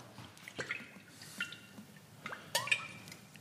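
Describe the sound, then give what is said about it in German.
Olive oil being poured over quark, heard as a quiet run of small wet glugs and drips, irregularly spaced, with a couple of brighter splashy plops near the end. No one speaks. “ich gieße jetzt ein bisschen Olivenöl über den Quark, knall Zitrone drauf und ein bisschen Schnittlauch rein.”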